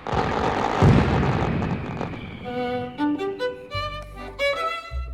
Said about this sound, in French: Mais les développements de l'artillerie classique conduisent à des armes plus efficaces et les fusées ne servent plus qu'à faire de jolis feux d'artifice.